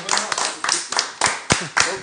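Hand clapping in congratulatory applause for a musician: about eight sharp, crisp claps in a loose, slightly uneven rhythm, moderately loud, with a faint murmur underneath.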